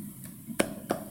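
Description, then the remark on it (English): Two sharp hand claps in quick succession, fairly loud, with a faint softer clap just before them, made on waking up as part of a Guru Sakash practice, over a quiet background and no talking. “make a kind of clapping sound like this when waking up.”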